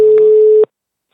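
telephone busy tone

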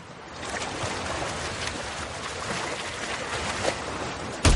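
sea waves

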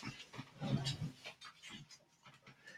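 dog panting

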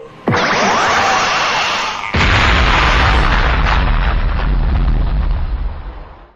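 video game explosion

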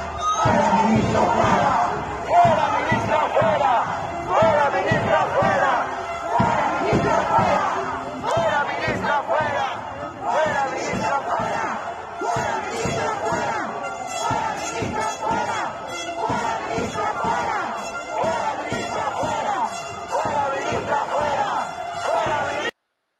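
crowd chanting protest slogans

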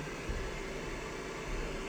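electric fan white noise

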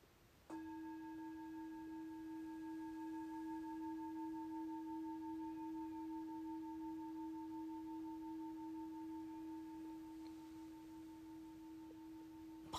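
meditation gong ringing

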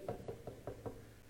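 knocking on a door

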